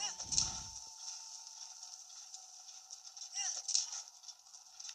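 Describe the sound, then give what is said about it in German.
A horse whinnies sharply near the start and again toward the end, over a steady, bright background hum with faint hoofbeats and no clear galloping rhythm. “Das machen wir jetzt schnell mit dem Pferd als Fuß dann doch etwas lange dauern würde.”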